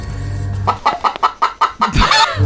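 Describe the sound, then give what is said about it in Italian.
A hen clucks in a quick series of about seven short, evenly spaced bursts, then lets out a louder, squawking cackle, clear over a low background hum. “c'è la gallina sculacciata che è intervenuta.”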